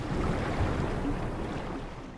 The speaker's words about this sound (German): Ah, da rauscht das Meer